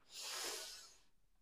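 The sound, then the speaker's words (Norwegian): A single deep inhale drawn in through the nose during a guided breathing exercise, a soft airy hiss that swells and then fades over about a second, quiet with no talking. “Pust inn godt inn.”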